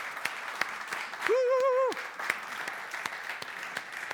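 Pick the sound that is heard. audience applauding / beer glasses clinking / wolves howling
audience applauding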